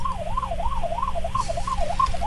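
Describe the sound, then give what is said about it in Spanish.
A fire truck siren yelps in fast, steady rising-and-falling cycles, heard from some distance as part of a celebration, over a low rumble of street traffic, with no one talking. “Mire el carro bombero hace hoy a la distancia.”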